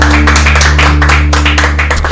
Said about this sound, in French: C'est bah, pas mal, on peut applaudir notre invité.